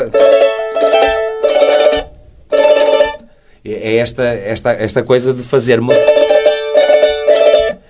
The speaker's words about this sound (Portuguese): melodia, ritmo e harmonia ao mesmo hum. tempo. Isso é o cavaquinho. Isso é o cavaquinho minhoto? É o cavaquinho minhoto, dito, hum. dito minhoto. Isto aqui é, é um cavaquinho minhoto que, por acaso, foi feito por uma pessoa de Coimbra